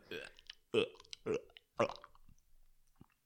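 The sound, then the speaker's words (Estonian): A person imitates retching with four guttural, gurgling heaves in quick succession, fairly loud, trailing off into quieter throaty noises. “ma suhtan suht häid oksehelisid teha tegelikult.”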